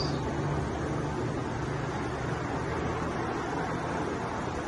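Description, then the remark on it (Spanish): Ocean waves on a beach at San Benito make a steady, broad rushing wash that stays fairly constant throughout, with no distinct individual breakers and no voices. “Me encanta este video porque se pudiera escuchando la, el mar, la playa, cómo va sonando, cómo suenan las olas.”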